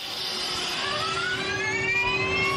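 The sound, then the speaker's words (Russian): Onboard sound of an electric hypercar, weighing under one tonne with a power of 1013, accelerating hard on a speed record run at Goodwood, a loud, steady roar with a whine climbing smoothly in pitch as speed builds, filling the cabin with no talking. “Это звук изнутри.”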